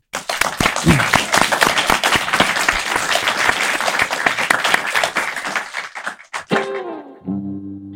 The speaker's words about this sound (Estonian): Need on väga ilusad sõnad, millega lõpetada, teeme suure aplausi.